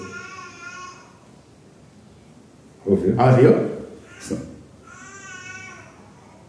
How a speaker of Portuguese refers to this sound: São dois bebês chorando.